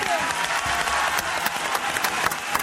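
A steady wash of audience applause for a contestant awarded third place, many hands clapping densely and continuously at a fairly loud, even level, with crisp individual claps poking through the roar.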